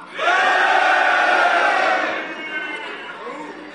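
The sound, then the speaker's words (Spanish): A crowd of men in an audience shouts and roars together in answer to being asked how many men are there, a loud, sustained burst holding for about two seconds before trailing off into scattered yells and chatter. “¿Cuántos hombres hay acá?”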